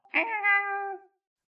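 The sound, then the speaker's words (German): A voice imitates a high-pitched squealing shriek: one cry about a second long, starting with a harsh burst, then holding a steady, slightly falling tone before cutting off. “Sie quiekt so ein bisschen und mit ihrer keckernden hohen Stimme schreit sie auf.”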